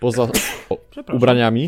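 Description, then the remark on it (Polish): A single short, sharp sneeze bursts out in the middle of a man's speech, fairly loud, with talking continuing right after it. “Na zdrowie.”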